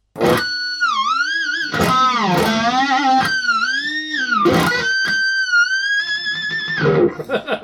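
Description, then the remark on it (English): A bright, ringing electric guitar harmonic at the seventh fret of the G string, distorted and sustained, bends up and down in pitch with a wavering vibrato, broken by a few sharp picked attacks, loud with no talking. “So I hit harmonic. and then I bent it in vibrato.”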